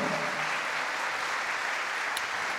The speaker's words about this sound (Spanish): Denle un aplauso a Cristo, amado hermano. A su nombre, gloria.